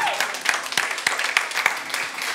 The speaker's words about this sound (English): Yeah, let's give the Lord a clap. Hallelujah.